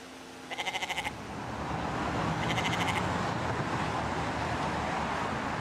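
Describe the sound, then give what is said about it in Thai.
A goat, being led into a shop by a farm owner's wife, bleats twice, each a quavering, pulsing cry, the first short and the second drawn out, over a steady rumble of traffic-like background noise with no talking. “เมื่อไปถึงภรรยาของเจ้าของฟาร์มก็จูงมันเดินเข้าไปในร้าน พนักงานได้เห็นแพะเข้ามาในร้าน ก็ทำท่างง”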